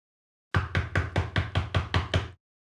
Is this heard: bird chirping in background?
no